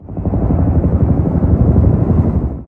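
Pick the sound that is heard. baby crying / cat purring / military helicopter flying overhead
military helicopter flying overhead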